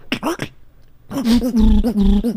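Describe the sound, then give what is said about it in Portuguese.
A voice imitates a duck's quack as a beatbox effect: a few short nasal bursts, a brief pause, then a longer run of buzzy, honking quacks, fairly loud. “Esse é barulho de pato, né? O Duck é, Sound.”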